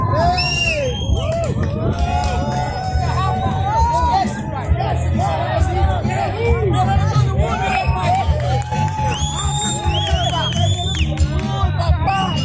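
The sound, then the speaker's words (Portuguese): A dense festival crowd roars continuously during a food handout as people come down carrying boxes of pork ribs, with cheers, whoops and excited shouts rising over a steady babble of many voices for the whole stretch. “Essa é emoção, esse é o clima da entrega da galera descendo com as caixas, passando pelo evento para fazer a entrega da costelinha de porco.”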